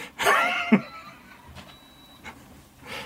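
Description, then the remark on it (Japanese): A home humidifier, recently cleaned with a cleaned filter, hums steadily with a faint high-pitched whine, broken by a few short bursts of clattering and sputtering noise. “これ加湿器ちょっとだけ掃除したのよ掃除してフィルターきれいになったから少しきれいになったんだけどそれでもすげえ音聞こえてっかな俺うちの加湿器のちょっとうるせえ音あ聞こえてるこれがねえー、っとね中の加湿器の音です”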